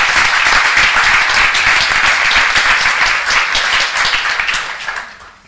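An audience applauds steadily to welcome a guest called up to join, a dense wash of many hands clapping loud, holding for several seconds before fading out at the end.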